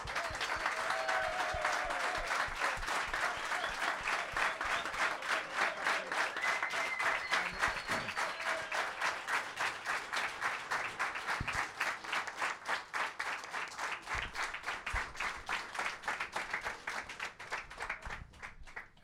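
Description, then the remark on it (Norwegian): An audience applauds steadily for about nineteen seconds as Eirik Horneland is called in, a dense wash of many hands clapping that thins into more distinct, rhythmic claps toward the end. “Å, han var Gjennom applaus!”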